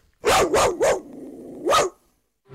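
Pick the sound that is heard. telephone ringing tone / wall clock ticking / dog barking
dog barking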